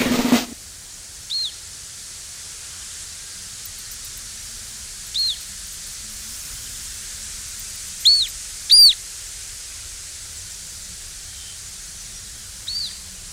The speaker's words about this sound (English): The tweet of the week this week is Hen Harrier, which is the jewel in the crown of Isle of Man uh, birds.